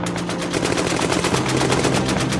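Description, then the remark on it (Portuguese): Heavy American infantry machine-gun fire, turning back waves of Japanese attackers, rattles on without pause, a loud, rapid stream of sharp cracking shots layered over a dense roar, with no voices present. “Mas as mesmas eram rechaçadas diante do pesado fogo da infantaria norte-americana, que concentrou todo o seu poderio contra as ofensivas japonesas.”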